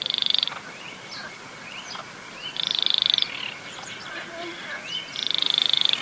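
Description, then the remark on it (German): A male Baillon's crake's courtship call: three dry, rapid, frog-like rattling trills, fairly high-pitched, about two seconds apart, over a steady hiss with faint chirps from other birds. “So klingt das Männchen, wenn es balzt.”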